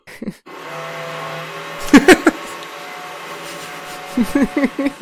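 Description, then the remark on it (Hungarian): A power drill whirs with a steady, droning motor hum, broken by a few sharp knocks partway through, before voices start talking over it near the end. “Figyelj, végülis az van, hogyha ugye a miénk, mi sávunkban nem hallatszik be, a lényeg az, hogy te ne beszélj akkor, amikor fúrnak.”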